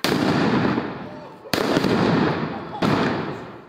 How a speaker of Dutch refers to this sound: Relschoppers gooiden dagenlang zwaar illegaal vuurwerk naar de politie